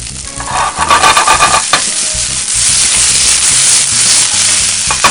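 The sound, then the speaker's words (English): Vegetables sizzle steadily in a hot pan with rice and oil, a loud crackling hiss with occasional scraping and stirring clatter underneath, continuous throughout with no talking. “You want to hear that sizzle?”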